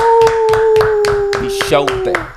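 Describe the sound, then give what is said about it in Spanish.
Steady, rhythmic clapping as an audience applauds a guest being introduced, about nine sharp claps in even succession, while a voice holds a long sustained whoop over them. “Así que vamos a darle un fuerte aplauso aquí a”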